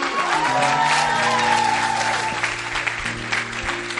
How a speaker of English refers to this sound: Clap for them.